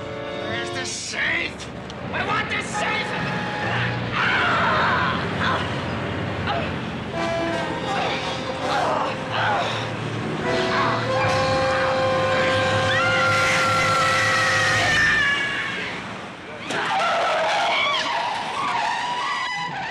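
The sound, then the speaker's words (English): In a film scene, car tires screech loudly in long, repeated skids as cars run down a man stumbling into the street. Their shrill, wavering squeals overlap with roaring engines through most of the stretch before a brief lull and another burst. “Hilliard, but from an unnamed character who screams in shock when Randall, blinded after having his eyes gouged out by Mrs. Hilliard, is brutally run down by cars as he stumbles into the street.”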